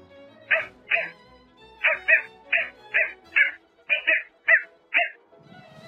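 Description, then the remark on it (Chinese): A person imitates a dog barking with a rapid series of about eleven short, sharp, mid-pitched woofs, some paired, delivered fairly loudly with brief gaps between them. “嗯，第一个是小狗的叫声。”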